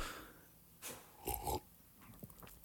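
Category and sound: animal, dog snorting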